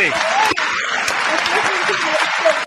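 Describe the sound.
Steady, dense applause from a crowd, many hands clapping at an even loudness for the whole few seconds, with a few voices mixed in underneath.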